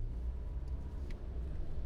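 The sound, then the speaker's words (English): A steady, low engine-and-road rumble fills the inside of a moving car with air conditioning, driving in light rain, constant and moderately loud, with a faint airy hiss above it and no voices. “Um, and I've got you know air conditioning and all kinds of great stuff in this car.”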